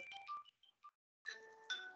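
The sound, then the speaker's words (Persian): A mobile phone rings with an electronic melodic ringtone: a quick burst of bright tones, a short pause, then a longer sustained chiming phrase, fairly quiet and with no talking. “بله اجازه بده من این بله بله گوشیم زن کرد اینو خاموش کنم من میتونم اینو یه لحظه جواب بدم”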